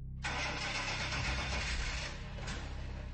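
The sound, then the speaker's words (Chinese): A car engine cranks over and over without catching, a steady churning mechanical whir that runs for about three seconds with no one talking. Nothing was found wrong with the car, yet it would not start. “无论是自己还是请别人来看，那辆车可都没毛病，可就是打不着火。”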